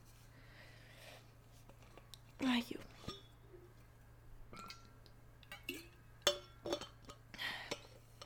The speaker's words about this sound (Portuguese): Onde é que eu pus a minha garrafa d'água? Ai, está aqui. Desculpem, malta, vou só dar um golinho.